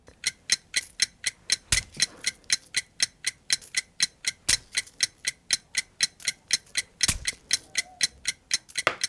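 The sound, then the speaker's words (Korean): A countdown timer for a 20-second challenge ticks steadily at about three sharp, bright clicks per second with no voices. A few louder thumps land among the ticks. “자, 타이머. 시. 작.”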